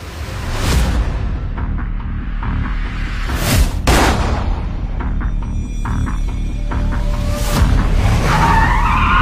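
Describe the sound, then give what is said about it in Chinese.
Tires screech as cars race in a chase in the first trailer for the action crime film Line Walker (使徒行者), engines roaring steadily with sharp whooshing bursts and a high squeal of skidding rubber near the end. No one speaks. “飞车、爆炸、追击，作为一部标准的动作犯罪类型片，在《使徒行者》首款预告中，你可以发现啊，动作场面酷炫、炸裂、酣畅淋漓。”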